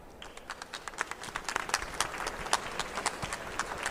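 An audience applauds to welcome a speaker, many hands clapping in a dense, irregular patter that holds steady at a moderate level for a few seconds, with no voices over it.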